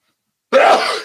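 A single sharp sneeze bursts out of silence, loud, with a breathy, noisy tail that fades over about half a second.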